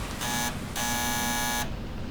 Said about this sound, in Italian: A Torino piove fortissimo. Suono il campanello.